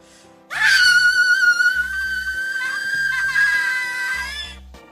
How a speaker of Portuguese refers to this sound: Não posso gritar tão alto que senão vai explodir todo. Como é que fala? O alto-falante desse negócio.